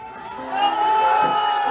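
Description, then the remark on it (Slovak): A crowd at a political protest in Nitra shouts together in a sustained, loud roar of many overlapping voices, swelling after a moment and holding steady for nearly two seconds. “Tak zakričte, koľko vás tu je.”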